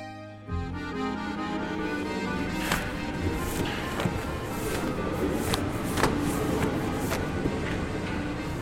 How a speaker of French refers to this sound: On s'est retrouvé quelques jours plus tard sur le quai de la ligne 12 du métro. Il était en train de coller des affiches.